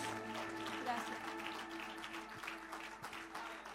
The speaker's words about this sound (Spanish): Dele un aplauso, un aplauso al poderoso, al grande. Aleluya, aleluya. Gloria a Dios.